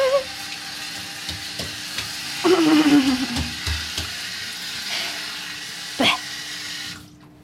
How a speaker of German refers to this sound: Ein neuer Tag, eine neue kalte Dusche.